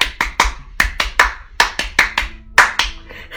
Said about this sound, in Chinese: 两个人鼓掌鼓到后半夜一点的时候，赶紧离开了那里